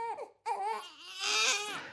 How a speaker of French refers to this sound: La femme était occupée à faire la cuisine ce matin-là, et le bébé pleurait et la dérangeait. Alors elle le porta hors de la caverne et lui donna une poignée de cailloux pour qu'il joue avec. Mais le bébé continua à pleurer.